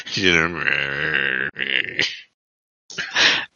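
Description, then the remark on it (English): A wordless, grumbling mumble from an old woman praying: one long drawn-out groan, a shorter grumble right after, then a brief pause before a final muttered burst. “And that grumbling sound as these two old women pray will begin to rewind the clock backwards and backwards”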